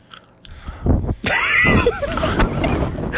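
A piece of gum being chewed intensely, with loud, wet smacking and clicking mouth sounds over a rough, breathy rush of noise.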